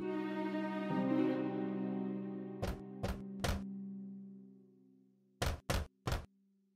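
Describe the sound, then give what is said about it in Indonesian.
Two sets of three firm, distinct knocks on a wooden cottage door, heard over a sustained low musical tone that fades out before the second set. “Ketika dilihatnya ibu kambing pergi, dia menunggu sebentar, lalu datang ke pintu pondok dan mengetuk pintunya.”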